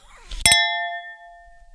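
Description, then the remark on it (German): A wine glass clinks twice in quick succession as someone pours themselves wine, leaving a clear, high ringing tone that slowly fades over about a second, with faint soft rustling just before the strike. “Aber ah, da muss ich mir einen Wein einschenken, du.”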